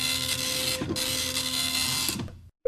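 A dot matrix printer prints in a loud, rasping, high-pitched buzz for over two seconds, with a brief stutter partway through, then stops abruptly. No one speaks.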